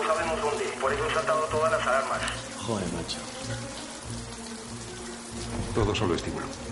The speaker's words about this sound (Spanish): Han saltado las alarmas y el agua de los sensores antiincendios se ha abierto. Cae agua por todos lados.